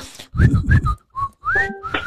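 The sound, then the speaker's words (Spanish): A person whistles a short, chirpy birdlike phrase of quick rising and falling notes ending in a long sliding tone, fairly loud, with no talking. “Entonces, los, mis, sí, mis pajaritos le hacen.”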